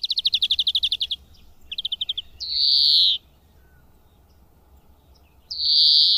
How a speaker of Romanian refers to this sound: Florintele are două tipuri de cântec. Unul constă din fluierături melodioase, iar celălalt este un strigăt monoton cu pauze lungi.